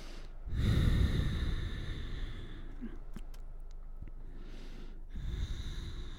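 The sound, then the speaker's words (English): Slow, deep breaths of a person holding a yoga pyramid pose, stretching the left hamstring: a long airy inhale swells, then a steady exhale flows out, followed by another breath, with no talking. “Just staying here, breathing. Keep that breath flowing.”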